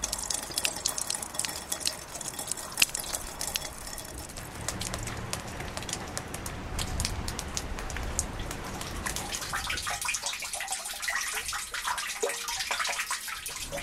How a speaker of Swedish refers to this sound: ju mer det regnar, desto snabbare smälter ju faktiskt snö och is. Så istället för fågelkvitter, så här lät det i södra Österbotten tidigare idag.